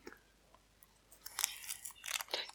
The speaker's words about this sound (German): Ich Jetzt ein Brot gemacht so, und esse jetzt mein, ein Korni.